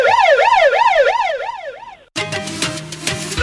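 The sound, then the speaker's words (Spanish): A loud police siren sound effect in fast yelp mode, its pitch rising and falling rapidly about seven times in two seconds, then cut off abruptly by a dense, busy burst of other sound. “Espérense de la chota.”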